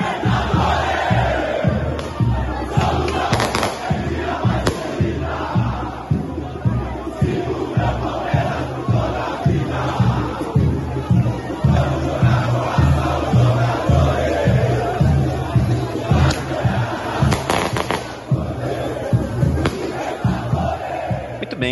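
A large crowd of Palmeiras football fans chants loudly and steadily to a pounding rhythmic beat, with cheering and a few sharp firework bangs cutting through the continuous roar, at the team's send-off from the Academia de Futebol in São Paulo, Brazil, as the squad departs for Uruguay.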